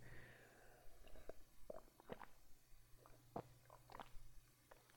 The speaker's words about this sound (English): Here's a sound effect of me drinking water because I'm thirsty.